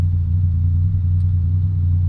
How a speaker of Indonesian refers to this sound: sekarang saya ada di jalan tepatnya jam 20.17 nih kebetulan lampu merah dan sebelah ada motor semoga nggak ganggu ya atau nanti kita nunggu dia lewat aja nih